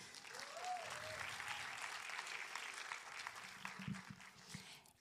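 An audience applauds steadily, a dense wash of clapping that holds for about five seconds and then begins to thin out, with a few voices and whoops mixed in.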